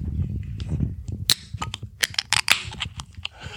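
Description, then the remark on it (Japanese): A drink container of local Institution beer being opened: a low rustle of handling, then a loud sharp crack followed by a run of quick, bright clicks and crackling pops, with no voices. “飲んでみたいですね。はい、じゃあちょっと開けますね。”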